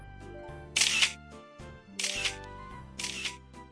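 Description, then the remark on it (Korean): Camera shutters click in three distinct bursts as many photos are taken of monkeys at a hot spring, each a quick cluster of sharp mechanical snaps, spaced about a second apart over a low background hum. “たくさん写真を撮っているのね。”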